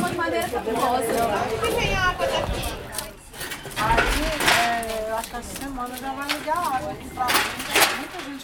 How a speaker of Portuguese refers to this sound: O som desse canteiro de obras, na ocupação do andar em BH, é um pouco diferente da maioria dos canteiros.